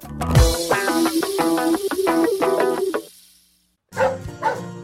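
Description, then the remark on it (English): A dog named Annie barks loudly in a rapid, continuous string of barks for about three seconds, falls silent briefly, then lets out another short burst of barking. “That's my dog, Annie.”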